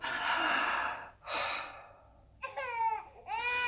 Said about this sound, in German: Wir wollen jetzt die Lungen untersuchen. Ha. Schnaufen Sie durchs offene Maul tief ein und aus. Und nochmal tief ein- und ausschnaufen.